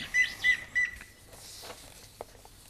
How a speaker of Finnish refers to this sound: Tämä oli harmaa päätikko. Nyt jos ruokintapaikalla on, on semmoinen iso vihertävän harmaa tikka, niin kannattaa myös pitää korvat auki,